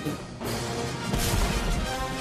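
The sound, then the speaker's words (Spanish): A deep, booming cannon-like blast bursts out over dense, loud orchestral music, the low rumble swelling midway through and lingering under the sustained instruments. “Con todo y cañonazos.”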